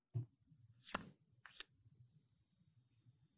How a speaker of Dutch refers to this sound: die zitten in een bijzonder cilindervormig doosje en dat maakt zo'n geluid als je het opendraait